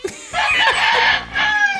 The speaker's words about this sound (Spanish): Estoy aquí junto a un gallinero. Escuchen cómo cantan las, las gallinas.